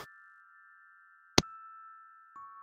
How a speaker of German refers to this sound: In dem Moment, in dem du den Riegel zurückschiebst, hm? hörst du das leise Bimmeln einer Glocke. Hört ihr das auch? Kann man orten oder herausfinden, aus welcher Richtung diese Glocke kam?